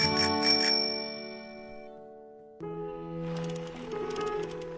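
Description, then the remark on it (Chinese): A bicycle bell, pressed hard by the rider, rings in two bright bursts: a quick metallic trill that hangs and fades, then a second round of rapid dings with a shimmering ring. No voices. “有办法，太太骑着自行车出门了，小狗皮皮在旁边跟着跑。”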